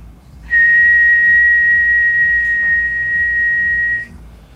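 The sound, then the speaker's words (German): A steady, piercing test tone of about 2000 hertz holds one unwavering mid-high pitch for about three and a half seconds, loud and alone, then cuts off abruptly. “Das ist jetzt etwa 2000.”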